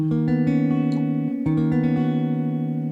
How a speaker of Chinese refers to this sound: 啊，这样的声音呢，就是有咪发嗦三个音在一起，那在吉他上就是很难，当然在键盘上很容易，它们是挨在一起的，但是在吉他上呢，如果标准定弦，你的左手要张特别大的距离。所以这些声音就变得更加的 mellow，更加温吞，非常疗愈。